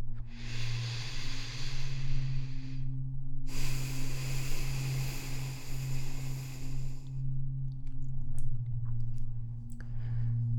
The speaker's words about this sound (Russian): Еще раз на четыре счета вдох, на четыре счета выдох. вдох и выдох до конца, полностью освобождаем легкие от воздуха.